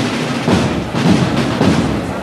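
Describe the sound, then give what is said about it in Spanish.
The Tejera marching band's bass drum booms in a steady beat, about one hit every half second, each paired with a bright cymbal crash that rings over the loud, continuous band sound. “De nuevo suena el bombo, los platos”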